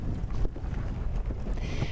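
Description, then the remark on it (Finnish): A small motorboat runs steadily at sea in the Ilulissat Icefjord, Greenland, its engine rumble mixed with rushing water and wind buffeting, punctuated by occasional knocks and scrapes as the hull rides over chunks broken off icebergs. “Tältä kuulostaa, kun pienellä moottoriveneellä ajetaan jäävuoresta irronneiden lohkareiden päältä merellä.”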